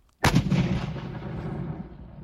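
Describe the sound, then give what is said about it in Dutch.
A single loud cannon blast from a historic cannon at the Bourtange fortress on the Dutch-German border, aimed toward Germany, erupts after a brief silence, a sharp boom followed by a long, rumbling roar that slowly fades as it echoes outdoors. “Een kanon gericht op Duitsland. Zal ik hem even afvuren?”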